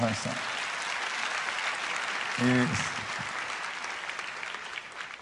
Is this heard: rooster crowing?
no